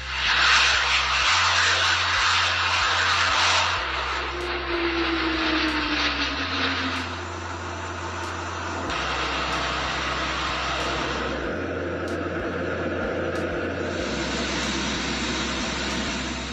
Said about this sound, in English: NATO is sending a message to Russia. For the next two weeks, 250 military aircraft and 10,000 soldiers will dominate these skies. They're practicing how to respond to a Russian attack.